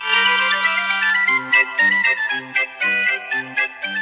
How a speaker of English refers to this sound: Okay, let's start off. You know the classic clown song?